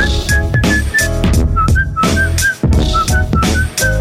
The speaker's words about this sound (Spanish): Ese, chiflido, ese chiflido, como ya mismo me voy, como mentadas.